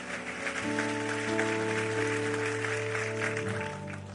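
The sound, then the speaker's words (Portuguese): An audience at a church service claps steadily to praise God, a dense wash of applause over sustained organ or keyboard chords holding beneath it, fairly loud and continuous without talking. “Vamos aplaudir a Ele.”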